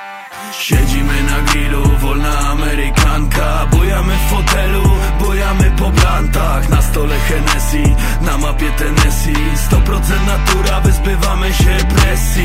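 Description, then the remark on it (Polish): A song plays on the radio, loud and continuous, with a steady thumping beat, deep sustained bass notes and melodic lines weaving over the top for the whole stretch. “No to to wasza pioseneczka z wakacji.”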